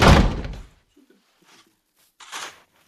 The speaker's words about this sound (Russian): кричишь ты, и он хлопает дверью кабинет.